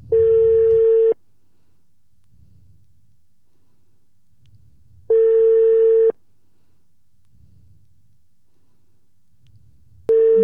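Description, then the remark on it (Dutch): A phone call to someone's mother rings out on the line: a steady electronic ringback tone sounds for about a second, then pauses several seconds, repeating three times with no one speaking. “Zullen we zo eens gaan bellen?”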